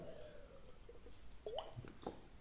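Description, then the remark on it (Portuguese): Someone drinks water: quiet wet sips and a couple of soft swallowing gulps with small clicks, over a faint hiss and with no talking. “E até tenho que beber água.”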